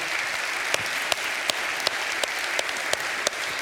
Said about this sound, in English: Can we like clap and thank Jesus for giving us this letter?